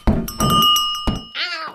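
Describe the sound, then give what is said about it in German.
Small bell tones ring out over a few soft thumps as a male cat's collar bell jingles while the cat approaches, followed by a short, clear meow at the end. “Ich hab dich schon kommen hören. Echt praktisch, deine Glocke.”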